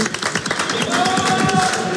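Dense, continuous clapping from a group in a studio, a rapid crackle of many hands at steady loudness for the full two seconds, with faint voices mixed underneath.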